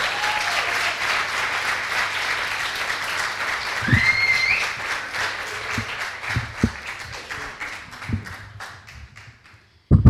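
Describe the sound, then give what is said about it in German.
An audience applauds steadily as a speaker is invited to the front, a dense wash of many hands clapping that holds for several seconds before thinning out and fading, with a brief whistle-like tone partway through. “Ich äh, ja, darf Sie jetzt nach vorne bitten und großen Applaus.”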